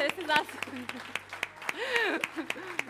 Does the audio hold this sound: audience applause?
yes